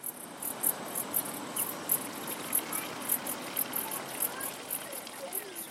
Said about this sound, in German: Erbaut auf einer Lichtung im Lerchenwald, ein Brunnen plätschert neben dem Toilettenhäuschen.